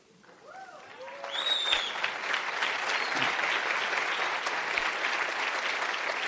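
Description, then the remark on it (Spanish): An audience breaks into applause for an attendee asked to stand up; it swells over the first second and holds steady as a dense, even wash of clapping, with a few brief whoops and voices rising above it near the start. “La nueva plata, ponte de pie que vamos a darte un aplauso nuevamente.”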